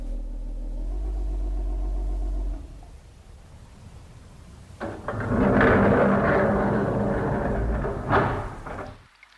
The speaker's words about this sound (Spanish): Repentinamente el ascensor comenzó a bajar con mucha lentitud hacia los pisos inferiores. Esto es una pesadilla. Ya estamos en el segundo piso y sigue hacia abajo. El ascensor de carga no se detuvo hasta que llegó al sótano del edificio.